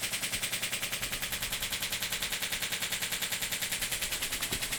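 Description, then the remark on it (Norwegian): A shockwave therapy device treating Achilles tendinitis fires a rapid, steady stream of sharp, pistol-like pulses, roughly ten per second, each a strike against the Achilles tendon, like a fast mechanical ticking or popping. It is continuous, with no talking. “Når man får Og dette her, hver gang det hører den pistollyden så er det et slag mot akillesen.”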